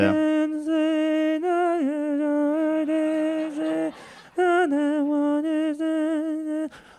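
A new age pop song plays loudly and clearly on its own: a sustained, legato vocal line of long held notes with gentle vibrato over a smooth, airy backing, with no talking.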